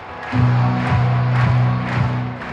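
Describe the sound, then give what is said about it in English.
A loud crowd at Memorial Stadium roars continuously before kickoff as the Nebraska Cornhuskers football team comes out of the tunnel, layered over a steady low droning tone with faint rhythmic pulses, a big, sustained wash of noise. “Music blares, fireworks pop, the crowd roars when the Huskers come out of the tunnel.”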